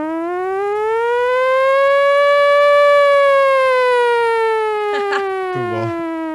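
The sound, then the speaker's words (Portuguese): A voice imitates an air-raid war siren in one long, loud wail that slowly rises in pitch and then sinks again, with a couple of brief clattering noises near the end. “A, a de guerra. Aquela de guerra?”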